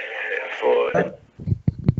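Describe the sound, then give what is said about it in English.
A muffled, tinny voice comes through a lagging phone call line, first smeared and distorted, then breaking into choppy, stuttering fragments with brief dropouts of silence between them. “there's there's like distortion, bro, because it keeps lagging, and I'm not catching everything that he's saying.”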